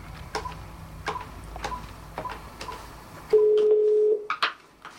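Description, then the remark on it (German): A phone number is dialed with a steady series of sharp clicks to call the company Eurosol, then a single long ringing tone sounds clearly on the line, followed by a couple of brief electronic blips. No one speaks. “Wir rufen Eurosol an, wollen wissen, ob die Firma auch an deutsche Supermärkte liefert.”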